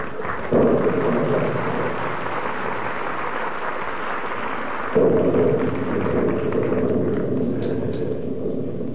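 Steady rain hisses throughout while low thunder rumbles, swelling into two heavy rolling surges that fade between them, in a rainy scene outside a drugstore in the radio show Fibber McGee and Molly. No one speaks.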